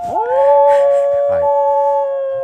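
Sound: dog howling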